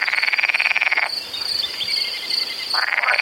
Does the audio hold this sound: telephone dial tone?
no